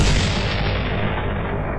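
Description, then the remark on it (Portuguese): A single heavy, booming shot rings out loudly, followed by a dense low rumble that hangs on for the rest of the moment with no talking. “Daqui a 92 tiros, nós poderemos ver o exato momento em que tudo acontece.”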